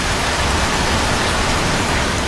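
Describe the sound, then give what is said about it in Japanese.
Heavy rain pours down steadily, a dense, loud hiss of countless drops drumming on surfaces with no letup and no voices. “晴れのち雨雨のち大雨大雨のちもっと大雨もっと大雨のちもっともっともっと大雨”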